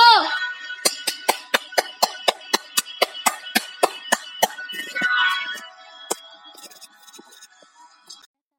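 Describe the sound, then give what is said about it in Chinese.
Audience applause welcoming a story programme's mentor: a steady run of sharp, evenly spaced claps that slows and thins out toward the end, with brief vocal sounds at the start and midway. “为我们解析这段小故事，掌声 有请。”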